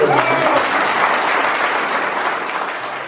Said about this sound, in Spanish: Démosle un aplauso.